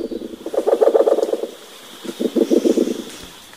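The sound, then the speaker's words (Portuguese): A tawny-browed owl (yellow-bellied murucututu) calls in two bursts of rapid, low, pulsing hoots separated by a short pause, clear with no voices. “E agora o murucututu de barriga amarela.”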